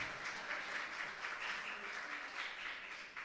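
An audience applauds steadily, a dense wash of many hands clapping at moderate volume for a few seconds, with no clear speech over it.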